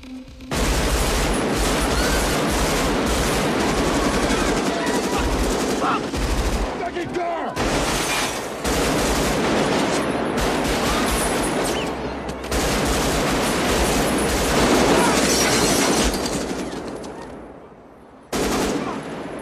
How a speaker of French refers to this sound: on ne s'attend pas à, ce que Chris Valkymer euh, tire aussi soudainement sur les flics et de façon aussi nourrie